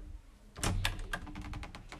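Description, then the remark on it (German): A metal door handle is pushed down and jiggled against a locked large entrance door, giving a sharp clack followed by a quick run of rattling clicks, with no voices. “Er ging zur großen Eingangstür und drückte die Klinge herunter.”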